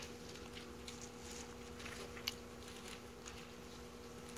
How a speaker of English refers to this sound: I still hear pages turning, turning. That's all right.